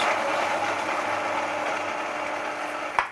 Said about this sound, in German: so, ich werde jetzt die Kichererbsen mit dem Knoblauch und den Zwiebeln und dem Zitronensaft häckseln. Einmal kurz laut.